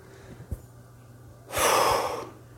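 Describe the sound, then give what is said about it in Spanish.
A single deep breath: a soft brief intake, then a long, airy exhale lasting nearly a second, with no talking. “De nuevo, para definir esto, una respiración profunda.”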